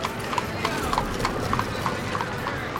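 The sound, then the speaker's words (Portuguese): Horse hooves clip-clop in a steady, even rhythm as a rich carriage rolls along, each hollow knock sharp and regular over a continuous low rumble and hiss. “Trouxeram uma rica carruagem”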